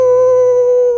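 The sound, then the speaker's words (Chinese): A person's voice imitates a wolf howl heard one early morning near a grassland herders' camp: one loud, sustained "ooo" held at a steady mid pitch for about a second, with a rich, tonal quality and no other talking. “就是我突然听到一声狼嚎，嗷，”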